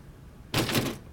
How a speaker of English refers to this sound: She tried the main door, but it was bolted shut from the outside